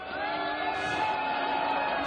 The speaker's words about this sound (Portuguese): Vaiado, vaiado pela torcida de Hong Kong. Viva a vaia! Olha que vaia bonita. Viva a vaia!